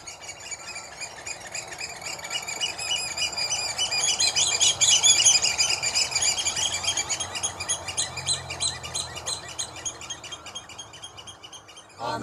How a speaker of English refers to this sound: So they come down here for shelter and protection. So as you're walking the beaches, walking off your Christmas dinners, you can hear the 11 pipers piping, our tweet of the season, oyster catcher.